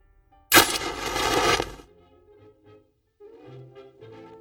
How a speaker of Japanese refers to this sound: フラッシュパウダーが燃える独特の匂い。写真機のシャッター音。この時のことは、鮮明に覚えてるわ。